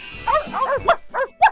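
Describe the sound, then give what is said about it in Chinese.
A dog with eyes as big as teacups, appearing before a soldier, gives a quick run of about five short, mid-pitched barks and yelps, the last ones sharper and louder, with no one talking. “他曾在树底下看到的眼睛有茶杯大的狗儿，在他面前出现了。”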